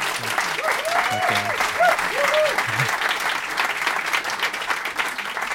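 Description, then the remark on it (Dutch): A crowd applauds steadily throughout, dense clapping with a brief voice or two rising over it near the start. “Dus eh, blij met applaus, ik pak het.”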